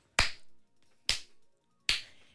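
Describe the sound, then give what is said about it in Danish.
Three sharp hand claps imitating swatting at mosquitoes, used as a radio sound effect on Radio 100's Nyhedsagurken, spaced about a second apart with an uneven rhythm, each a crisp, bright smack that decays quickly into silence. “Ja, det er radiofoniske øh, virkemiddel, der kaldes at glaske myg.”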